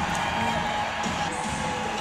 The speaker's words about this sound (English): As Sydney Colson dribbles it up, will hold on to the basketball. Crowd on their feet, and this one will be a wrap.